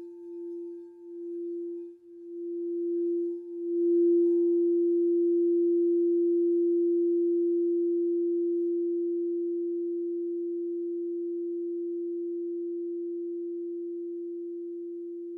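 A crystal singing bowl tuned to the heart chakra rings out at the start of a meditation in a single pure, steady tone that swells at first, then sustains smoothly and fades very gradually over about fifteen seconds, with no voices.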